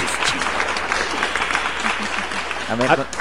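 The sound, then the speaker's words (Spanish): An applause sound effect is played: steady, dense applause from a crowd, a loud wash of many hands clapping throughout, with a brief voice calling out over it near the end. “Aplausos, chingados.”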